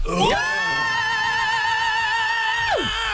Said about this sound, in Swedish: Vi ska utföra ett traditionellt tvättäkta jävla power metal-skrik. Högt som F-A-N.